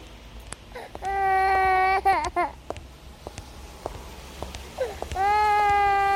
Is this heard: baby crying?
yes